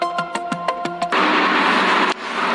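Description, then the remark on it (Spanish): A passenger car of the Mexico–Toluca interurban train runs by: a few quick rhythmic clacks over a steady electric whine, then a loud, continuous rushing roar of rolling wheels. “Este es uno de los carros del tren interurbano México-Toluca.”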